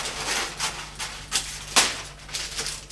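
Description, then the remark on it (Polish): Crisp rustling and crinkling of baking paper being laid onto a baking tray, in a string of short papery bursts with one sharper crackle partway through; no one speaks. “Ozdobię blaszkę papierem do pieczenia, aby tak wiecie, bezpiecznie.”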